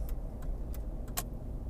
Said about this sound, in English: are we serious people are wilding out traffic is crazy right now